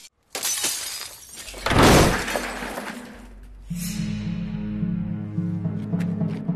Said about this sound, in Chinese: 这俩杀手费尽力气也没占到大便宜，其中一个还反被扔到楼下去了，咣一下砸到车顶。